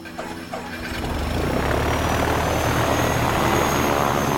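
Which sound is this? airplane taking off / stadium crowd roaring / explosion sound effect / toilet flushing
airplane taking off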